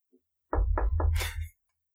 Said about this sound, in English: You walk up and knock on the door, presumably. Mm-hmm. All right. You knock on the door.